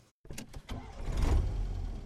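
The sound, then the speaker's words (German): A car door shuts with a couple of solid thuds, then an engine turns over and settles into a low, steady rumble. “Wir steigen wieder in den Wagen und rollen los.”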